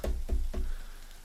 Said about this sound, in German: Ihr hört es draußen einmal klopfen auf das Dach.